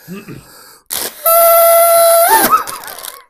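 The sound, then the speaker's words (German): A trunk-shaped party horn blower toots one loud, steady, buzzy note for about a second, then wavers and bends upward as it dies out, with short bits of talk before and after. “Deine Rüsseltröte sieht sehr traurig aus.”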